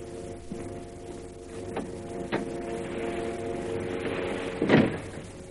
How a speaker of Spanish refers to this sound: El muy serio, sale cerrando la puerta.